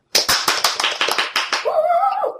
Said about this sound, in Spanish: vamos con la petición de una amiga nuestra que tenemos que dar un aplauso que es difícil con la camisa de fuerza, pero intentando